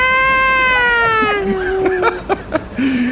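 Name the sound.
voice imitating crying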